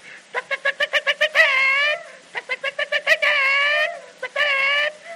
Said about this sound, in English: and chickens.